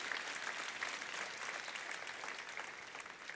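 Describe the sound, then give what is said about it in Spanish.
An audience applauds those who will be baptized next Sunday, a dense wash of many hands clapping at an even, sustained level for the whole stretch, with no voices standing out above it. “Mi respeto les damos un aplauso a los que el domingo que viene se van a bautizar, porque tú te comprometes.”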